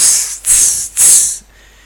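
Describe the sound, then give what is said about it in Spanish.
A voice imitates boiling water from a kettle hissing as it hits the floor: three sharp, airy hisses in quick succession, loud, the last one trailing off into quiet. “Mientras el agua hirviendo tocaba el piso al sonido de”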